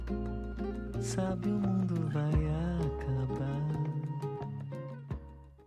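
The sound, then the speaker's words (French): Bossa nova music plays on its own, with sustained melodic notes and chords over soft, evenly spaced percussion, at a steady moderate volume. “Pourquoi t'as mis de la bossa nova Je sais pas, ça détend, non vous entendez, c'est le bruit des vagues.”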